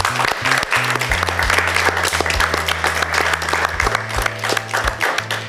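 An audience applauds steadily for several seconds, a dense, even patter of many hands clapping together, fairly loud, with low sustained tones humming underneath.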